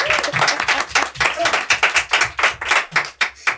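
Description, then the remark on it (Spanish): A short burst of applause from a small group, dense at first and thinning into distinct, rhythmic claps as it winds down. It sounds fairly loud, with faint voices mixed in. “Por favor, aplausos.”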